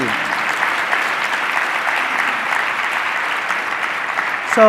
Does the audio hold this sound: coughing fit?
no